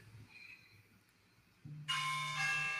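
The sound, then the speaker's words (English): An alarm starts abruptly after a quiet stretch, a low hum followed by a loud, bright, buzzing electronic tone that rings steadily to the end without pausing. “is that my is that my alarm? yeah, that's your that's your alarm.”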